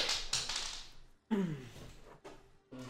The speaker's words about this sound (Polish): Spadła kostka. Także rzucam kością i zobaczymy do jakiego wniosku dojdzie Ilse.